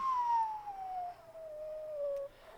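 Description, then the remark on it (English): A single long descending whistle, voiced by a person imitating an incoming intercontinental ballistic missile (ICBM), sliding steadily downward in pitch for about two seconds before cutting off, fairly loud. “That is the sound of an ICBM, you know, converging on your location”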